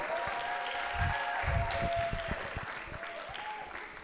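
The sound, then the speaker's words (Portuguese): A church audience breaks into steady applause for the relaunch of the church's growth groups, a dense wash of many hands clapping at a moderate level, with faint voices and a sustained tone running underneath before it gradually thins out. “É, pode aplaudir, pode aplaudir.”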